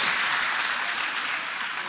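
A crowd applauds steadily for those attending for the first time, dense overlapping claps forming a continuous bright wash of sound at an even loudness for the whole stretch, with no voices over it.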